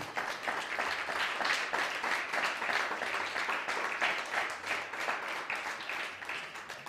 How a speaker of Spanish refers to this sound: Sean bienvenidos todos, un fuerte aplauso ahora sí.